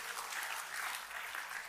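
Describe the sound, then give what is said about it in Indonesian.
An audience claps steadily in applause for God during a sermon, a dense wash of many hands forming a continuous, even roar of applause with no voices standing out. “Tepuk tangannya boleh paling meriah buat Tuhan kita.”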